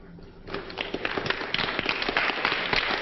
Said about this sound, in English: The modern American soldiers look at their female comrades applauding. Others of different types join them